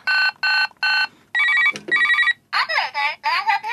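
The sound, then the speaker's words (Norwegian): A phone rings out on an outgoing call to order pizza: three short, evenly spaced electronic ring tones, then two longer tones broken by a click, before a voice starts talking. “så ringer vi et lite nummer og bestiller pizza.”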